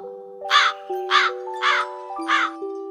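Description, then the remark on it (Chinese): A crow caws four times in a steady rhythm, each harsh call loud and evenly spaced, over a sustained background of soft tonal music with held notes. “有一天，乌鸦飞了好远的路，口渴了，到处找水喝。”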